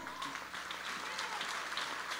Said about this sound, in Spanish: si ese aplauso es para...